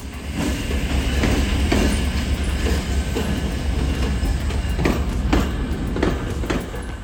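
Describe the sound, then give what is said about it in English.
The Santa Fe Roadrunner train rumbles steadily as it departs the rail yard in Santa Fe, New Mexico, bound for Lamy, with a low continuous engine drone and irregular clanks and clicks of wheels over track joints, loud, no voices. “Hold on tight this week, and we'll ride out with the Santa Fe Roadrunner train as it departs the rail yard in Santa Fe, New Mexico, on its way to Lamy, New Mexico, and then all points east.”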